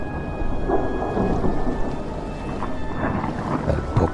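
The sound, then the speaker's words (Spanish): A stormy sea roars under steady heavy rain, with deep rumbles of thunder rolling through and rain pattering densely across the whole stretch, no voices present. “Ahí abajo, señalando el oscuro mar embravecido.”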